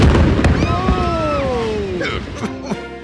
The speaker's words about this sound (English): The suspect was inside the residence at the time of the explosion, and he is presumed at this point to be deceased.